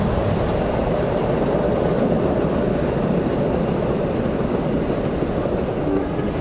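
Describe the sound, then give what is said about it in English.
A loud, continuous rumble and roar of a train running in an area by an airport runway, a dense, unbroken wall of mechanical noise that holds steady throughout with no one talking. “It's not just the airplanes; it's the train, it's the traffic, it's it's just an oppressive uh, audio environment.”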